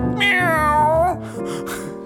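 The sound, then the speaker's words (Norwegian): A single long, loud cat meow with a wavering, drawn-out pitch that rises and then slides down, clear, followed by a brief softer trailing sound. “Å, den katta den gjør alltid det beste!”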